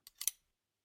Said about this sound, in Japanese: 不服そうな夜平に、行くよと手招きしてから、ふと立ち止まって、アジサイを一房、ポッケから取り出したハサミを使って摘んだ。